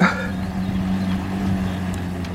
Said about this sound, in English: Put his bike in, in the boat and he takes me across the river.